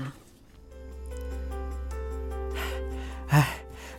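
A boy panting after running up to a driver: two breathy gasps near the end, the second sharper, over a steady low droning hum with no talking.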